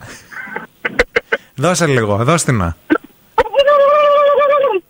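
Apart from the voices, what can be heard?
fart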